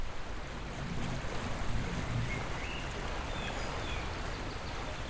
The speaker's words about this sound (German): Draußen zwitscherten die Vögel und schon sehr bald war das Flussplätschern ganz deutlich zu hören.